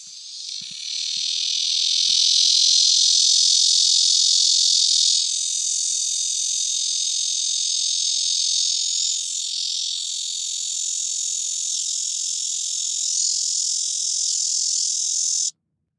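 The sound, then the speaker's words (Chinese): A red-veined bear cicada, the most common cicada in cities, sings in one long, unbroken high-pitched drone lasting about fifteen seconds, loud and steady with slight shifts in tone partway through, then stopping abruptly. “红脉熊蝉它的一个特色就是它在叫的的那个音频的话，它是比较长，一直线滴这样过去。”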